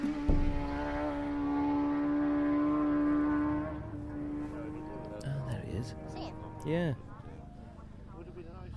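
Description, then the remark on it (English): A loud, droning engine roars past close by on the TT course at Douglas Head, holding a steady pitch for a few seconds before fading away, followed by brief conversation over quieter background noise. “Just a matter of inches from the TT course, as you can probably hear.”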